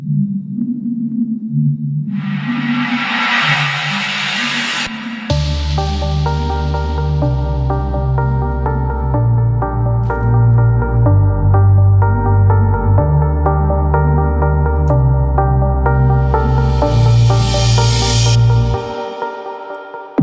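A song plays with no singing yet: a low, droning intro with a rising hiss, then a loud, steady beat with heavy bass and sustained synth chords that swell again near the end.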